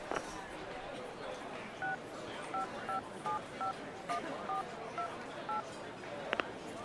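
A rapid series of about eleven short telephone keypad tones, each a crisp paired beep, dialed in an uneven rhythm over faint background noise as someone dials a mobile phone number, ending with a brief click.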